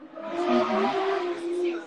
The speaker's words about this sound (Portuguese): Nossa, passou o quê? Passou uma McLaren é aí, né? Uma é Fórmula 1. perto de um morro, então assim, a moto custa subir.